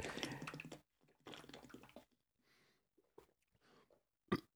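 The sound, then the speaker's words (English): Water pours in two splashy bursts, then a few quieter trickles and drips follow, ending with a short sharp knock. No one speaks. “Did you get it? You get enough water?”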